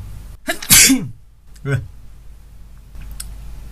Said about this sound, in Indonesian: pengen bersin lagi kalem